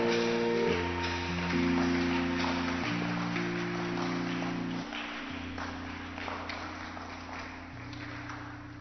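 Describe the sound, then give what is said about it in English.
An audience claps steadily for several seconds while sustained keyboard chords play underneath, the clapping forming a dense, noisy wash over the held low notes. “Clap for the next champion sitting beside you.”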